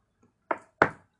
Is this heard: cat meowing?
no